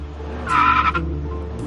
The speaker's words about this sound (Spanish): Simplemente me pareció extraño que cuatro mujeres en un Cadillac pasaran por delante de mí, me adelantaran y se me quedaran las cuatro mirando. Me metí por un callejón. El coche dio la vuelta.